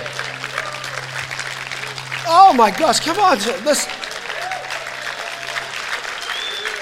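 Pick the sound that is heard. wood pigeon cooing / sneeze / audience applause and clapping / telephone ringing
audience applause and clapping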